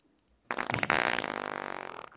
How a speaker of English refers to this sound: He just farted his whole way through Thanksgiving. It was crazy.